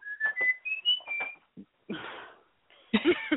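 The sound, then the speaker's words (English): A pet bird whistles the Old Spice commercial theme song, a short melodic jingle in clear, rising and stepping notes, followed by a few breathy rustles and chirpy squawks. “Did, did you hear the old Spice theme song in the background?”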